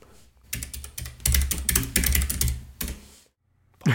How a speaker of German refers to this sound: Bop. Laute Tastaturen